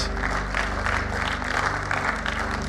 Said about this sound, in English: So give them a great clap. They deserve it. They worked so hard.